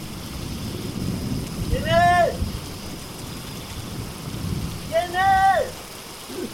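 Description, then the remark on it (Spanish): A thunderstorm with heavy rain keeps up a dense, steady roar and low rumble throughout, while two brief rising-and-falling wailing tones cut through it a few seconds apart. “¿Pero qué haces luchando contra la tormenta?”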